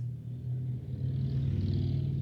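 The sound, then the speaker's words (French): A motorcycle engine rumbles past outside, a steady low drone that swells slightly as it goes by, heard on its own with no talking. “Désolé pour la moto qui vient de passer.”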